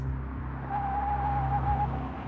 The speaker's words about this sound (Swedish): Några minuter efter åtta på morgonen stannar hans Opel Olympia utanför villan på Isbergavägen 21A.